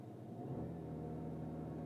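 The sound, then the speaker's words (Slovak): A car engine under launch control, held at full throttle with the brake pressed while waiting for the green light, holds at high, steady revs, a sustained droning roar with a strong low hum, loud. “Naplno drž plyn a teraz keď skočí zelená, tak len pustíš brzdu.”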